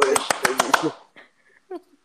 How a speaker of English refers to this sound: clap again. Clap.